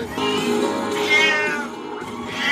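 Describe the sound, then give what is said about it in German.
A cat meows insistently in a long, drawn-out, wavering cry that rises and falls, loud, with no other sounds around it. “Oh komm, halt jetzt mal die Klappe. Das ist ja nicht normal hier mit dir.”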